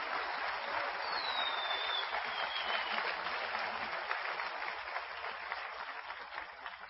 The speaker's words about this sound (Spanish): Sí, vamos a aplaudir por el ambiente, vamos a aplaudir por el ambiente.